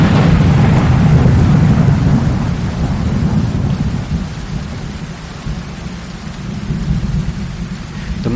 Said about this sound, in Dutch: Maar het regent en bliksemschichten schieten uit de wolken.